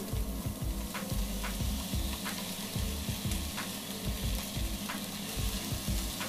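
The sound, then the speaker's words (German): Moistened six-grain cereal flakes sizzle and crackle steadily in hot oil in a pan, with frequent scraping and stirring knocks from a utensil, fairly loud throughout. “Dementsprechend habe ich jetzt hier meine, ich nenne es mal angefeuchteten Haferflocken und die kommen jetzt in die Pfanne zu dem Öl.”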